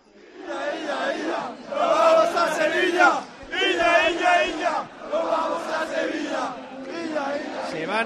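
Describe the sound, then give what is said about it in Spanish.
A large football stadium crowd chants in unison, celebrating their team reaching the cup final, rhythmic sung phrases rising and falling in loud surges with brief dips between them, a dense wall of voices. “Esto es lo que canta ahora el estadio de Somos.”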